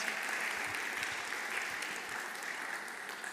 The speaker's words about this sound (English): Could you both please stand? Could everyone give a round of applause to these awesome women, these dear sisters in Christ?